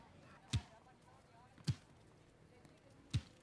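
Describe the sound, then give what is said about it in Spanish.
A ball bounces three times at uneven intervals during a soccer game, each a sharp thump standing out against a quiet, faintly noisy background. “Dale, Camila, pasa la pelota.”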